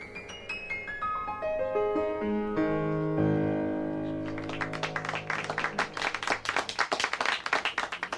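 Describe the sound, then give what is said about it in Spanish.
A descending run of piano notes settles into a lingering chord, then a small group breaks into slow, scattered, unenthusiastic applause for the pianist's performance that continues steadily to the end. “Siguió tocando las melodías de siempre hasta las once y pico, y al terminar un lánguido aplauso premió su interpretación.”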